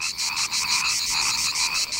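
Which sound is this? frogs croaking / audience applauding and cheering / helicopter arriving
frogs croaking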